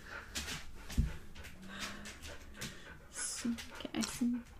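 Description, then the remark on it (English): A puppy whimpers in several short, high whines, fairly soft, with a few breathy pants and small rustling sounds between them. “Ah, puppy.”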